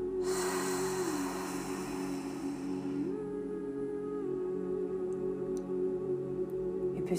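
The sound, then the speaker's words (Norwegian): A long, deep exhale during a guided breathing exercise, a soft breathy rush lasting about three seconds over a steady humming drone, which then carries on alone. “tre lange, dype pust. Og på hvert utpust så sender du jordingsrøttene dine helt inn til moder jord”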